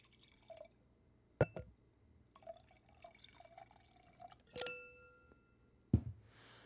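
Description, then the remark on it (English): Wine is poured into a glass in a cabin, a soft gurgling trickle lasting a couple of seconds, framed by a few sharp glass clinks, one ringing briefly. No one speaks. “So I'm going to have a glass of wine.”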